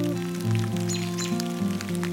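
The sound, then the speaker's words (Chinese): Steady rain patters with a dense, crackling hiss throughout, over sustained low tonal notes that shift in pitch like a soft musical backing. No one speaks. “呃，怎么下雨了？”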